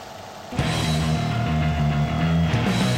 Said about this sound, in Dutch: En zo vaak zie je geen 16 mm projectoren meer. Die is deze. Dus, nou, dit is allemaal heel interessant. Ik, eh, en terwijl ik daar naar kijk, kunt u daar naar luisteren.